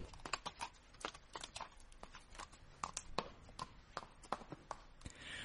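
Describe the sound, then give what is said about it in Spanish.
Horse hooves clip-clop in a quick, steady rhythm, sharp hollow knocks repeating, as mice turned into horses pull Cinderella's pumpkin carriage as fast as possible toward the palace, with no voices. “Los ratones, convertidos en caballos, fueron lo más rápido posible para llegar pronto a palacio.”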